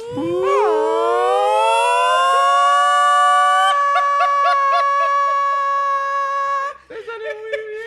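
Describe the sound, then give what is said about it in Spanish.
A voice imitates the atomic-bomb alarm siren used during an evacuation, a sustained wail that rises in pitch and holds steady, wavering briefly before cutting off into a few breathy sounds near the end. “Ya cuando la pusieron y era esa alarma de, de, bomba atómica que era...”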